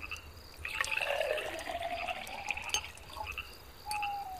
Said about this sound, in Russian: Плеснить, мужики, еще самогоночки.